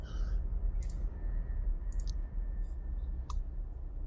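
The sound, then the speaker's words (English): Two challenge dice, rolled for melee damage in a game, rattle and click across a hard surface in a short scattered series of sharp, light taps over a low steady background rumble, with no voices. “So you actually now can roll your um, your melee damage, which for you is two challenge dice.”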